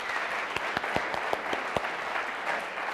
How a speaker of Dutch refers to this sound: Een groot applaus voor onze toneelspelers.